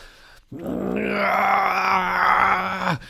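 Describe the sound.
A human voice imitates a creature's dying scream, a sustained, strained groaning cry about two and a half seconds long, loud, rising in intensity before cutting off abruptly.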